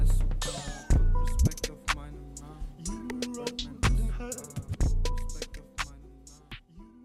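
A rap track plays up close with a heavy bass line and punchy, regularly spaced beats, with a rhythmic vocal delivered over the dense instrumental.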